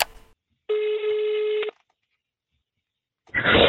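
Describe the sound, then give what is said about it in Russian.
A single steady telephone ringing tone sounds for about a second over the line of a phone call placed by the Russian outlet The Insider, then falls silent before a burst of crackly line noise as the call connects. “Давайте послушаем этот звонок.”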